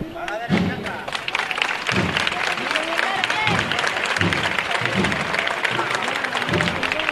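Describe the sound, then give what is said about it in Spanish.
A large crowd from the Alcosa neighbourhood applauds steadily as two religious brotherhoods greet each other in a procession, a dense, crackling wash of clapping, with low thuds recurring at a loose, regular beat underneath and a murmur of voices mixed in. “aplaude del barrio de Alcosa que ha acudido eh, un público muy multitudinario para ver ahora este, este saludo que se van a hacer ambas ambas hermandades.”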